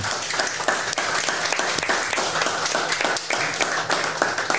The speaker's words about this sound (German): Ein Applaus bitte.